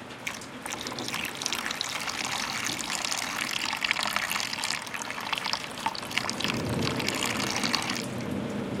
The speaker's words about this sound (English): That rain really drenched us. Let me squeeze out my hair so it can dry. Good idea. Let me give that a shot too.